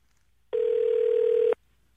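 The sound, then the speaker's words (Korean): A single steady telephone ringback tone sounds for about one second during a call placed from a KBS radio show, a loud, even mid-pitched electronic hum that starts and stops abruptly, with near silence before and after and no voices. “한번 전화 걸어보겠습니다.”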